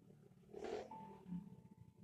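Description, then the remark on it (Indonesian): A motorcycle engine rumbles past somewhere outside, rising to a brief throaty roar then droning on at a low, fairly faint level with no one speaking. “sorry ada suara motor tadi kalau kedengaran”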